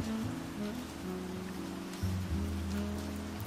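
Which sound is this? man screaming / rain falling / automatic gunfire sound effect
rain falling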